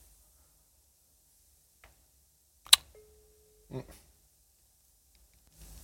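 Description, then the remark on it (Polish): A sharp click, then a single steady, quiet phone ringback tone lasting under a second as a call is placed on speakerphone, followed by a soft thump and faint rustling. No one speaks. “dzwonię do ciebie. No. Jest sygnał.”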